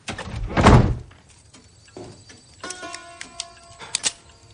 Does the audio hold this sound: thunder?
no